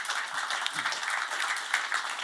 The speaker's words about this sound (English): Fantastic that deserves a round of applause.